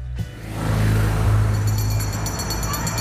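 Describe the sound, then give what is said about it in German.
A steady, loud engine drone with heavy low rumble from a yellow bus bumping along on a drive from Italy to Belgium, continuous throughout with a faint higher whine above it. “Wir holpern mit dem Bus von Italien nach Belgien”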